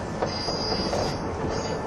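A 185 series express train, the Odoriko No. 106 running from Izukyu-Shimoda to Atami, runs along the rails with a steady, dense rumble, faint rhythmic clatter and a high metallic squeal riding over the top throughout, with no voices.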